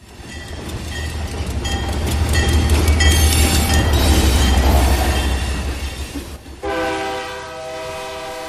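A train rumbles past in Matías Romero, Oaxaca, Mexico, its rushing, clattering noise swelling and then fading, before a long, loud horn blast sounds near the end.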